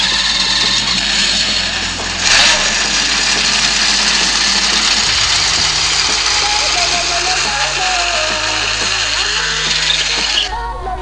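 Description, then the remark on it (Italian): A smartphone ringtone, triggered by a smartwatch's find-phone feature over Bluetooth, plays a looping melody of stepped tones steadily against a constant, hissy background noise, with no clear talking. “il trova telefono se volete adesso ve lo faccio un attimo sentire Che ho, eh, suonerà la vostra suoneria Vediamo adesso se parte”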